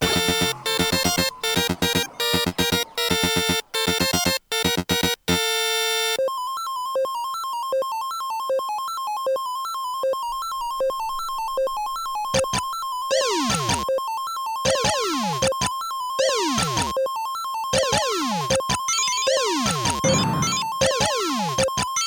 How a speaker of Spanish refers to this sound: Bueno, lo que estáis escuchando no es exactamente parte de un videojuego, aunque sí está basado mucho en uno, ¿no? pero sí que forma parte de un CD muy importante en la historia que fue el primer CD que se hizo sobre música de videojuegos o dedicado.